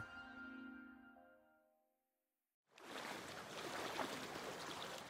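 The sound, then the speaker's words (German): A sustained tonal chime fades away, then after a short silence a steady wash of stream or lake water rushes in, fairly full, with no voices. “An einem Bach oder See vor rund 400 Millionen Jahren.”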